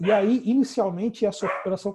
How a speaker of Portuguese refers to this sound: Vocês me desculpem, esse é meu cachorro aqui, tentando participar da conversa